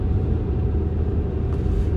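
A bus's engine rumbles steadily on a road toward Arnhem-Noord where the bus turns right, a dense low droning roar that holds constant throughout, with a brief faint higher click near the end.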